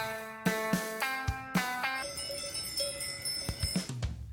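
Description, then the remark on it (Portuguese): Cowbells clank in an irregular cluster of metallic strikes, their bright ringing tones overlapping and sustaining between hits, played alone as a short jingle introducing a weekly segment, with no voices. “E assim chegamos ao nosso badalo da semana”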